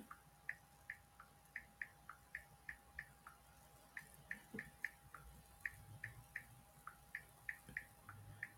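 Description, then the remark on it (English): Steady keyboard typing, a run of light, crisp key clicks at an even, brisk pace, fairly quiet, with a faint constant hum underneath and no voices. “Y'all hear me typing. That's me typing.”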